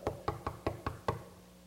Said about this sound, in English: something knocking on my window. So I turned and looked, and all I could see was a badge and a uniform. And I looked up, and there was a cop standing knocking on my window.